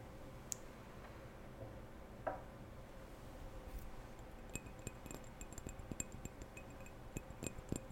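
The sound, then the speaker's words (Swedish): Quiet tapping on a small glass perfume bottle: light clicks and clinks with a faint bright ring, scattered at first, then a steadier run of soft taps in the second half. “Hör ni tappingen?”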